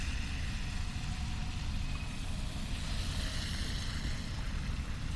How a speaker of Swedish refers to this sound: Det är ju mycket trafik här och det kanske är jobbigt att lyssna på, jag vet inte. Jag står och väntar på eh, att det ska bli grön gubbe. Nu åker en spårvagn förbi.